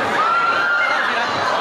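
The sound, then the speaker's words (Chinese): A crowd of audience members screams and shrieks continuously after a seat number is called out, a loud, high-pitched mass of excited voices with no single word standing out. “我听到这个尖叫声，说明肯定在啊！”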